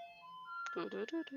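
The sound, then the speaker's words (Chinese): A garbage truck's electronic tune plays a few sustained, high, pure notes, and the melody carries on faintly under people talking in the second half. “好了，我们就伴随垃圾车把它录完好了。”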